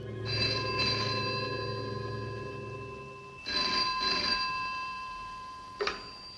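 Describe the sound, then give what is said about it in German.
An old-fashioned 1950s design-classic telephone, nearly the same model as in Hitchcock's Dial M for Murder, rings in the evening in two sustained metallic bursts with a bright, harmonic tone, followed by a short final jingle as the ringing stops. No one speaks. “Wenn der Apparat abends klingelt,”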